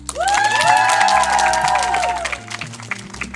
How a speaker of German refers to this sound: Einen großen Applaus auch für